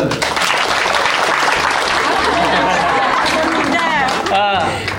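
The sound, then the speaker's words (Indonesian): An audience claps steadily and loudly for several seconds, dense applause, with a few voices and cheers rising near the end. “Tepuk tangan dulu.”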